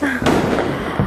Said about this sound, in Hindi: हाँ सुनाई दे रहा है डूम डूम डूम आज तो दिवाली है